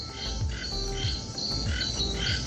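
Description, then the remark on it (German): A dense chorus of many frogs croaking in the garden of a beach hut in Kawita in the evening after high water, with birds in the trees. The calls are steady and overlapping, with repeated pulsing calls and a continuous high insect-like trill over the top. “Äh, sitzen jetzt hier irgendwie 18 Milliarden Frösche im Garten und irgendwelche Vögel in den Bäumen und das unterhält sich hier alles so ganz rege”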